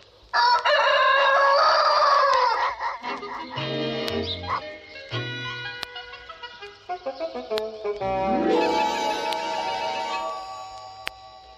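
A loud rooster crow rings out near the start, followed by bright, tuneful music with bouncy plucked and sliding notes carrying on to the end.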